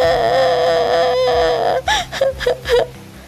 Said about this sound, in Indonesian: Seseorang di balik tiang pun mendengar lalu menghampirinya. Ia bernama Corona. Dia tak tahan mendengar tangisan Bopung.